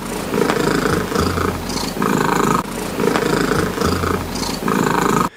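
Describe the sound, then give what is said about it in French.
A domestic cat named Bella, holder of the Guinness record for the loudest purr at 54.59 decibels, as loud as a washing machine, purrs extremely loudly, a deep continuous rumble that swells in steady, rhythmic cycles with no pauses and no voices. “Alors euh, pour info, hein, quand elle ronronne, Bella, elle fait donc autant de bruit qu'une machine à laver et c'est validé par le Guinness Book Record.”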